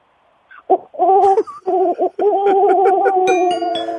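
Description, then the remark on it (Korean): A third-year student's voice mimics a pigeon's cooing as an encore, with a run of low, throaty, wavering coos, starting in short bursts and then sliding into a long sustained warble, fairly loud. “자, 비둘기 앵콜로 한번 들을게요. 비둘기, 비둘기, 큐!”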